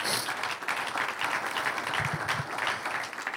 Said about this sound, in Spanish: ¿cuánto lo creen? Un aplauso al que vive.